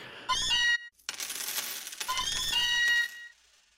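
A short, bright payday jingle: jingling coins and ringing, bell-like tones in two quick bursts. It plays loud with no talking, then fades out.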